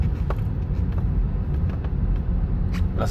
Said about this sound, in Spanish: Por eso que el tráfico está un desastre. Estoy en el tráfico ahora mismo y ahora, ahora vi por qué, hay, por qué está el tráfico, que hay un accidente.